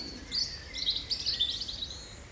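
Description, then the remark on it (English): Several resident and migrant birds chirp and warble together in high, overlapping phrases, a busy spring dawn chorus in a deciduous oak woodland in England's West Country, over a soft, steady outdoor hush, with no one speaking. “listen to the whole of the dawn chorus of resident and migrant birds in a deciduous woodland”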